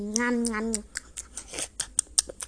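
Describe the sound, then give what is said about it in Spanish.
A voice imitates a kitten eating: a short hummed, pitched tone, then a quick run of about eight sharp smacking, crunching clicks in an uneven rhythm. “Y el gatito comió así.”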